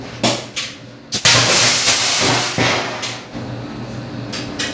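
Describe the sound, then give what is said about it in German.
A sharp burst rings out near the start as an NMC battery cell fails in a heating test, followed by a loud, sustained roaring hiss of venting gas, fire and smoke that surges and flickers for several seconds, the cell above 600 degrees. “So, hier schöner Knall, Feuer, Rauch, volles Programm.”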